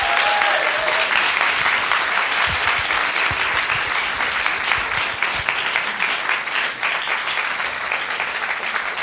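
Sustained audience applause for composer Donnacha Dennehy, a dense, steady crackle of many hands clapping at a loud, even level throughout, with no voices rising above it.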